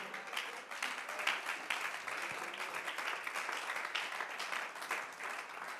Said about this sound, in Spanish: Puede darle ese aplauso al Todopoderoso.